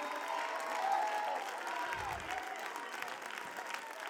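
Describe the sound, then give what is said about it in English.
An audience claps hands in a dense, steady wash of applause, mixed with crowd noise and scattered cheering voices, sustained at a fairly even loudness throughout. “Clap your hands, open your mouth, and let heaven know how bad you want”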